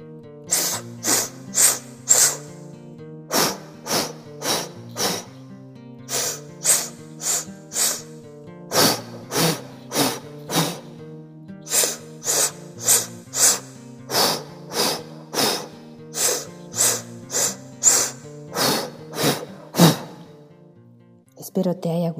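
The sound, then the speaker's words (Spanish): An active body breathing exercise of rapid, forceful breaths, roughly one per second, repeated steadily for about twenty seconds over a sustained musical backing. “Vamos de nuevo, vamos a respirar.”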